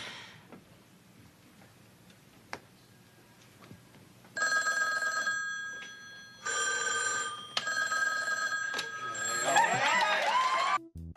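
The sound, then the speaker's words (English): Telephones ring with callers phoning in donations, in loud, overlapping bursts, a few separate trills starting a few seconds in and then piling up into a near-continuous jangle, with a faint ticking beforehand. “The phones begin to ring with a bunch of people saying, I donate $5,000”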